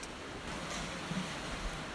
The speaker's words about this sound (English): Background sound of the sea, punctuated by the cries of climbers, dissolves the rendering of it.